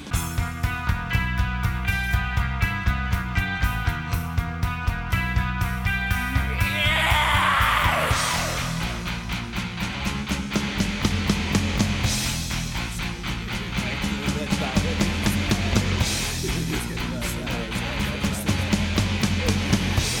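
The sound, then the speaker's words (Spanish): A loud, aggressive rock song with screamed, yelling vocals over pounding drums and dense distorted guitars, shifting abruptly in rhythm and texture partway through. “Tiene esa cosa como de jugar con los tiempos y los tipos de sonido en una misma canción.”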